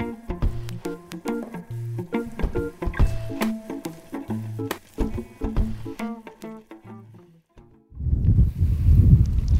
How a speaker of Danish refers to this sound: Hæftig vind, mand. Prøv lige at høre, mand. Hernede.